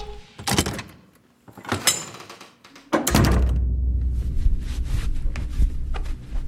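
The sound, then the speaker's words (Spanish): A few thunks and clatters, like a door being handled and shut, with a solid bang near the middle, followed by a steady low rumble of background noise. “Se dirige a la puerta y agarra su bolsa”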